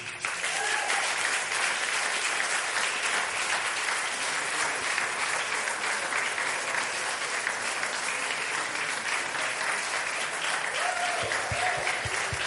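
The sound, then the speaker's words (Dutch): Sustained audience applause for the men, the fathers, fills the whole stretch, a dense steady wash of many hands clapping at once, loud and even throughout with no voices standing out. “Zullen wij die mannen eens een applaus geven?”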